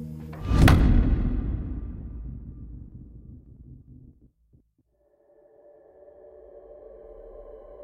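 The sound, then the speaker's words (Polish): A single sharp hand clap, made to synchronize the sound of two recorders, rings out near the start, leaving a long echoing decay that fades over a few seconds, then near silence before a low steady hum creeps in. “Za chwilkę nastąpi klaśnięcie dla synchronizacji dźwięku z dwóch rejestratorów”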